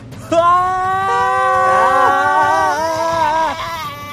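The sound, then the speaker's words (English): Several voices scream together in one long, sustained wail lasting about four seconds, loud, with pitches wavering and sliding against each other. “Generally, I would say to fasten your seatbelts, but right now I think there is only time to scream.”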